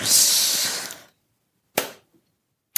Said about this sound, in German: Da. Ähm, das war das Geräusch des zuklappenden Nähkästchens.